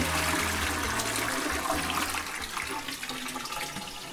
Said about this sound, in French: Michel vient de tirer la chasse